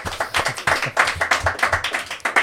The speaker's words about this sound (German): Ähm, damit ihr äh, mitbekommt, dass wir auch ein paar Live- Zuschauerinnen und Zuschauer haben, könnt ihr vielleicht einmal so das machen, was wir auch vorhin gemacht haben, dieses Klatschen.